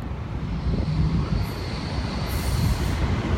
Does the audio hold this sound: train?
yes